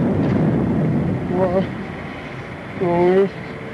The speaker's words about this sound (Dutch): Storm maakt zo'n lawaai.